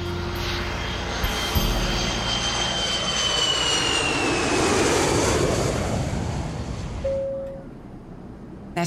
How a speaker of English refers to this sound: there was something in the air, you know, the plane goes uh, wow, wow, wow.